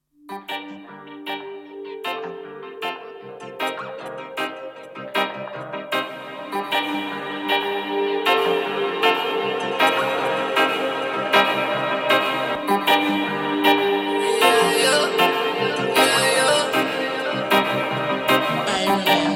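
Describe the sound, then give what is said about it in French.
A rap-style track with a steady beat, sharp percussive hits and layered harmonic backing, building gradually and staying loud and full throughout with no talking over it. “Alors, avant de passer à la thématique principale, euh, on va passer une petite chanson”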